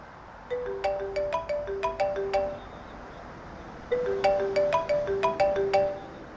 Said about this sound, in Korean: 다시 걷기 시작하려던 그때 내 핸드폰이 울려왔어. 살아있단 거에 감사해하며 미소를 지은 채 전화를 받았어.